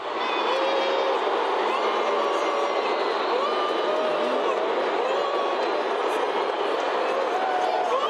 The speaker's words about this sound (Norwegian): Sør-Afrikas president Jacob Zuma ble møtt med en enorm pipekonsert, og publikum viste sin misnøye med den sittende presidenten.